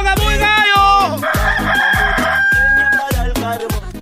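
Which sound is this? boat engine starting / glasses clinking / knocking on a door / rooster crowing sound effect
rooster crowing sound effect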